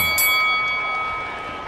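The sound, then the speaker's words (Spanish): A single sharp strike of a boxing ring bell ending a round of a boxing match, its bright metallic tone ringing out clearly and slowly fading over a low crowd murmur. “Se está terminando el round. Con un buen intercambio, muy parejo por lo menos este episodio. Cuando vamos a escuchar ya la campana.”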